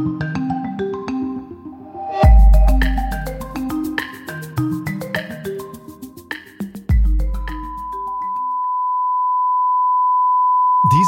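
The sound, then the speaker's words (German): After several seconds of music, a single steady pure test tone for loudspeaker systems sounds alone, a clear unwavering mid-pitched beep held continuously for about three seconds until the end. “Stellen Sie sich vor, Sie hören diesen Testton für Lautsprechersysteme nur quasi immer.”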